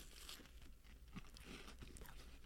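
Crunchy chewing of a chocolate-covered sandwich of two Ritz crackers with peanut butter, with a steady run of crisp, crackly bites and grinding munches and no talking.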